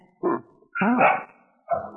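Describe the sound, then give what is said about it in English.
A dog barks three times in uneven succession, the middle bark drawn out, almost yowling, the last one cut off. Nobody speaks. “Oh, oh, good. There's your dog.”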